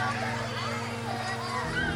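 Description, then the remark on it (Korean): Children run, play and shout at a playground, their overlapping voices forming a busy, continuous chatter, with a low steady hum running underneath. “요즘은 이런 아이들 뛰어노는 소리를 듣기 쉽지 않은데.”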